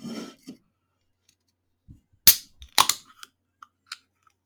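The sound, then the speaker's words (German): A drink can being opened: a sharp metallic crack, then a second burst with a brief fizzy hiss, followed by a few light clicks and taps in otherwise quiet surroundings. “Okay, ich öffne die Dose.”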